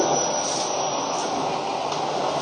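A Keio 5000 series commuter train running on the Motoyawata to Hashimoto route, approaching Chitose-Karasuyama station, a steady, even roar of wheels and motor noise that holds at one loudness throughout, with no voices.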